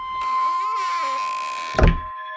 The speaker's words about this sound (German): Knarrend fällt die schief hängende Eingangstüre des Anwesens Rochusstraße 6 hinter Blasius zu.